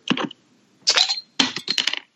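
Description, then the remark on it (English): A Flying Dog Raging Bitch Belgian IPA beer is opened and poured: a quick metallic clink and hiss, then two longer bursts of bright, fizzy splashing with small clicks. No one speaks. “I will do my best to not spill beer on my computer.”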